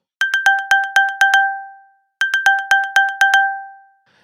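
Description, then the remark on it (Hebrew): An iPhone's new Find My alert, used to locate the device, plays alone: two loud bursts of rapid, bright electronic pings, each about eight quick tones with a ringing tail, separated by a short pause. “ששינו את הצליל של find מיי אם אתם צריכים למצוא את המכשיר שלכם באמצעות find מיי יש צליל אחר פעם היה טה-טה-טה-טה ואז עכשיו יש משהו אחר.”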